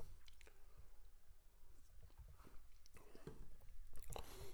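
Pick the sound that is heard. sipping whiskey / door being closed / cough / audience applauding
sipping whiskey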